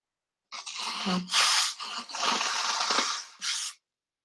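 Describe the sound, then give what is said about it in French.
Someone blows their nose, several forceful, hissy bursts over about three seconds with brief pauses between them, no talking. “Posez vos questions, je me mouche hein, en attendant.”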